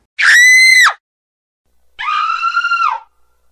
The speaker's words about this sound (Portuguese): Depois de vasculhar a casa toda, Anne escutou uns gritos vindo do porão.